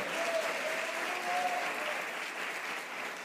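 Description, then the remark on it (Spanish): An audience applauds the Lord during a church service, steadily, a dense wash of clapping that holds at an even level for several seconds, with a few faint voices or whistles briefly rising above it. “un aplauso al Señor.”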